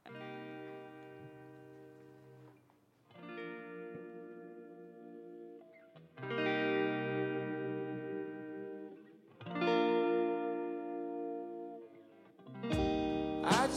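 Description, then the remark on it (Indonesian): A song plays on its own, with loud, effects-heavy electric guitar chords ringing out in sustained phrases that swell and restart every few seconds, no voices heard. “Ya sebelum kita mulai share pengalaman kita, pengalaman horor kita, kita dengerin lagu dulu deh.”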